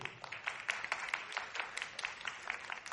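A church audience breaks into steady applause for a woman being introduced to the audience, a dense patter of many hands clapping at a moderate level with scattered sharper claps standing out, continuing for the full few seconds.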